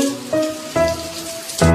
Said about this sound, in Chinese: 外面还下雨哎！